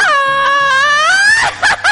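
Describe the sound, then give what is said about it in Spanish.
A person imitates a mariachi grito: one long, high, wavering yell held for over a second, then a few short, breaking whoops at the end. “¡Ay! ¡De mariachi!”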